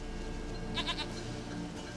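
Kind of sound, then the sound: animal, goat bleating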